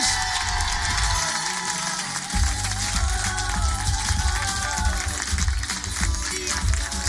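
A crowd at a live Fréquence Plus radio broadcast claps and cheers loudly and continuously for a three-member music group, a dense roar of applause with excited shouts and whoops rising over it, briefly thinning before swelling again.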